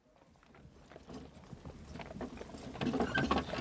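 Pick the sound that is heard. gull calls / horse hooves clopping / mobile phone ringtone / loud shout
horse hooves clopping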